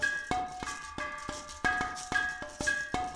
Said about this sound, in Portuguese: Que som é esse? Vocês também estão escutando? Uhum. Esse é o barulho da pedra sonora, uma lenda da região. Dizem que quando precisamos, ela nos traz proteção. Hum, ela deve estar querendo nos dizer alguma coisa. Vamos ouvir.